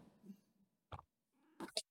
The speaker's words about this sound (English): I can hear that cat. Yeah, she's right here. Say hello.